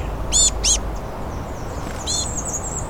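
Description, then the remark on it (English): A chickadee that wants food calls insistently: two quick, harsh, buzzy notes, then a third after a short pause, standing out over a soft, steady background hiss. “And this insistent chickadee”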